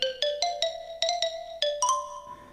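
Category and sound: marimba playing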